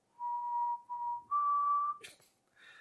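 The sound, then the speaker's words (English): A person whistles the opening of the bugle call taps: two short, clear notes on the same pitch, then a longer, higher note, followed by a brief breathy rustle. “I don't know if whistling comes through well on a podcast. I imagine it doesn't, uh, but I would whistle taps.”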